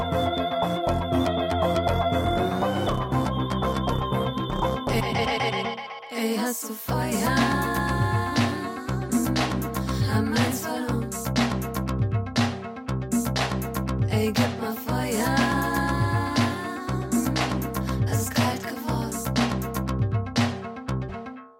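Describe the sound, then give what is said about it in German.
A full, loud music track produced by a freelance female artist and musician plays throughout with a steady rhythmic beat, sustained synth tones and a brief drop in energy near the start; a voice briefly speaks a short line over it. “So hört sich die Musik an”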